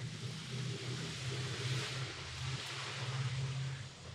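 A car rumbles past outside, a steady low engine drone with broad road-noise hiss that holds fairly even for several seconds, moderately loud, with no voices.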